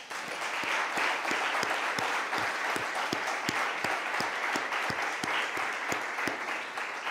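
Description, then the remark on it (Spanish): An audience at a church service applauds God steadily for several seconds, a dense wash of many hands clapping, with some sharper rhythmic claps standing out in a regular beat, sustained and fairly loud throughout. “Venga, déle un aplauso a Dios, por favor.”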